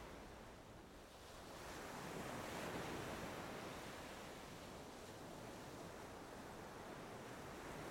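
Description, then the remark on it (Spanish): Ocean surf rolls in steadily, a broad wash of breaking waves that swells louder after the first second and keeps up a constant roar, with no voices present. “Gracias por todos los deportes acuáticos, por las enormes olas y las horas chapoteando en el mar tranquilo.”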